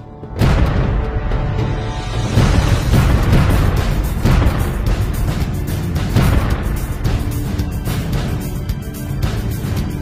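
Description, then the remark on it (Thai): Rapid bursts of gunfire mixed with heavy booming explosions, loud and continuous with a rumbling, echoing background, from a company-level tactical military exercise firing live ammunition. “และการดำเนินกลยุทธ์ระดับกองร้อยด้วยกระสุนจริง”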